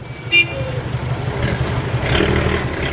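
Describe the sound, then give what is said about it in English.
An old Hindustan Motors Ambassador car engine in India rumbles steadily and noisily, growing a bit louder, with a brief horn toot near the start amid street traffic. “The Hindustan Motors ambassador was so noisy that kids playing on the street could safely hear it blocks away.”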